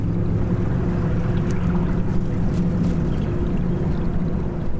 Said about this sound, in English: Out behind the plant, Mr. Neira points to a small stream of clear water he says is the treated water from his factory. We watch it flow down into the Valsequillo Canal where it immediately mixes with untreated wastewater from other maquilas